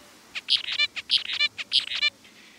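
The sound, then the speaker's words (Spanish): A short, high birdsong phrase of sharp chirps ending in a rapid buzzy trill repeats three times in quick succession, clear, with no voices; a real bird's song followed by a synthetic birdsong predicted from muscle activity. “Para que vean de qué hablo, así suena un canto verdadero y así un canto sintético”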